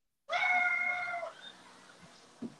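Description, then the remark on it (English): A loud, sustained high-pitched scream lasting about a second, starting abruptly and trailing off into faint background noise with a brief low thump near the end. “I thought you heard some scream just now.”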